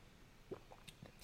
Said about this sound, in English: As I take a sip of water